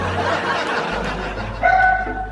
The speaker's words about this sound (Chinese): 狗叫